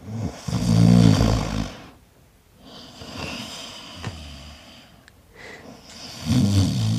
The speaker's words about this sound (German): Ist das dein eigenes Schnarchen? Nein. Aber du schnarchst, ne? Ja.